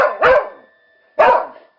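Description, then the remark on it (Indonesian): A dog howls as darkness falls in the evening, in two short, loud calls with a pause between them, each with a quick rise and fading tail, heard alone without any talking. “Bahkan lamat-lamat telinga Andre mendengar suara lolongan anjing.”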